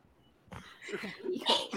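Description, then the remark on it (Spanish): Small dogs bark in the background, a few short, moderately loud yaps overlapping with mixed voices and room noise. “¡Es perritos!”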